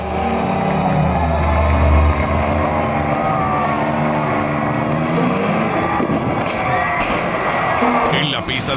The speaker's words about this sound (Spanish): Él como que intentó derribar varios autobuses parados con su pequeño auto de acrobacias. Mírenlo.